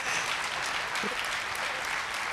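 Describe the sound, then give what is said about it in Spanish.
Steady audience applause, a dense wash of many hands clapping at an even level throughout, with no voices breaking through. “Tenía, o sea, bueno, nos van a aplaudir adelante.”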